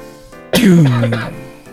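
coughing fit

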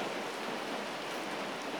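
rain falling

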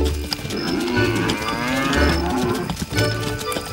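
cows mooing

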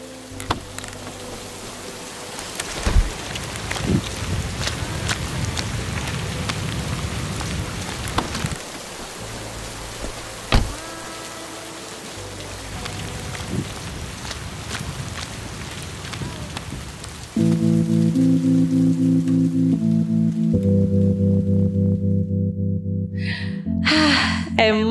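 heavy rain falling

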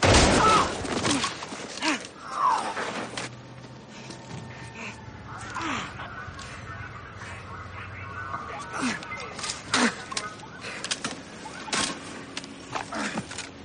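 gunshots

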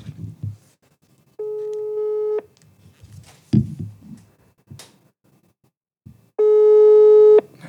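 outgoing phone call tone

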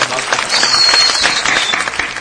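applause

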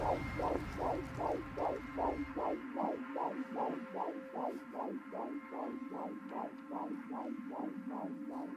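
heartbeat sound effect

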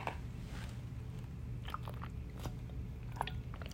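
sipping water

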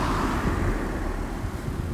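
car passing by

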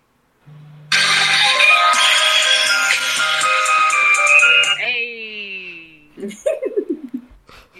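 timer alarm going off

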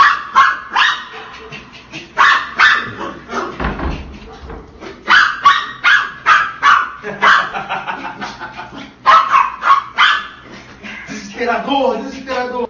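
dog barking

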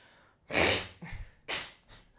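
blowing nose

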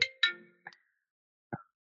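phone ringing

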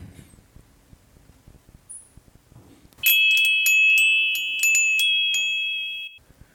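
mobile phone ringing

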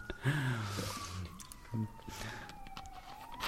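ambulance siren passing outside

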